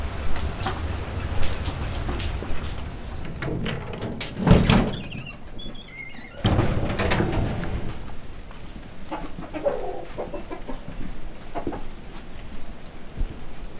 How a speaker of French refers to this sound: Voilà, il a commencé à pleuvoir à Wakabamba